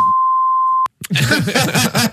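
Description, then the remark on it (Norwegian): A steady, high-pitched censor beep holds for nearly a second, cuts off abruptly, and after a brief pause a man starts talking. “dette, må, dette, skal pipes ut, det er det ingen tvil om.”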